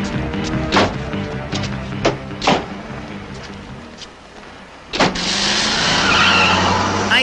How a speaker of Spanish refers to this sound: y todos los carros queman llanta cuando se van, ¿no? Pues van rápido.